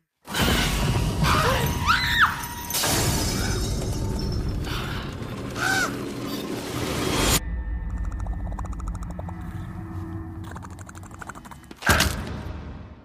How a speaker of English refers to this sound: But one day, just as they're filming another episode of Lovely Everyday Life, they're interrupted by an invading bird. It flits around the lounge, breaking things until Mum captures it, kills it, and chucks it onto the organic rubbish.